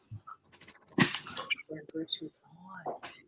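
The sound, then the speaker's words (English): Dogs bark close by in a few sharp, uneven bursts, mixed with short yelping sounds, while voices murmur in the background. “Why do all the dogs have to be right here, right now?”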